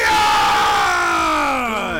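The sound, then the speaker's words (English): An arena crowd in the Sanguine Arena cheers wildly for its champion Achilles, a loud, dense roar of many yelling voices with rising whoops and shouts, sustained for the whole two seconds and fading slightly at the end. “And everybody already starts going nuts during the crowd.”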